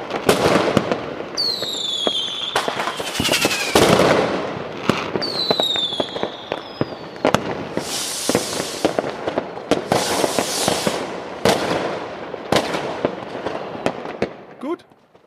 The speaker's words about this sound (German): Krieg ich dann jetzt mein Feuerwerk?